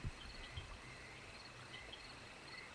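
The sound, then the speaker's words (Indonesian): Crickets and other night animals chirp steadily at night beside an outdoor latrine under a large tree, a dense high-pitched insect chorus sustained throughout, with a couple of soft low thumps near the start and no voices. “Hanya ada suara binatang malam dan suara air mengalir.”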